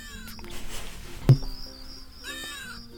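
A cat named Kaká lets out a string of odd, warbling vocalizations, neither a normal meow nor a purr, with a sharp thump partway through and a steady background hum.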